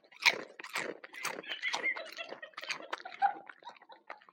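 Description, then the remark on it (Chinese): Someone crunches potato chips: a steady run of loud, crisp, irregular crackling bites and chews, dense and scratchy, with no talking over them. “其实我们也没想好要录什么，但是就是因为他吃薯片儿特别香，就想给大家听听。”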